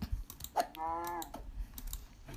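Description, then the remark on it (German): Scattered laptop keyboard clicks tap out at an irregular pace as someone plays a game on the laptop, fairly quiet, with a short humming tone rising briefly in the middle; no one speaks. “Falls man das Klicken hört, ja, ich spiele auf dem PC gerade, also eigentlich Laptop”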